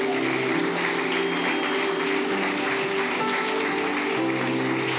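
A crowd claps steadily in a dense, continuous wash of applause, given for the King of Kings, Lord of Lords, that holds at an even level throughout, with a faint low hum or music underneath.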